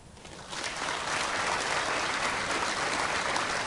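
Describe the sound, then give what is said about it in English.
An audience bursts into applause to vote in a poll, clapping if they think the item about beige fat is the fiction: many hands clapping in a dense, steady wash that swells within the first half second and holds at a loud level for a few seconds without any talking. “Those who think that item number one about beige fat is the fiction, so if you think this one is the fiction, applaud.”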